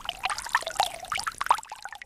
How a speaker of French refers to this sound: Et on est face euh, à une fontaine.